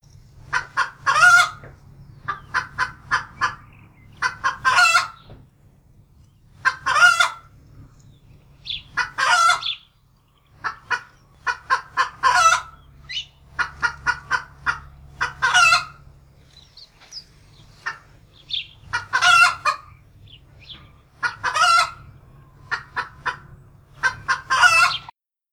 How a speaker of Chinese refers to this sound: 这时候，母鸡也起来了。听，这是一只母鸡，它在咯咯咯哒叫。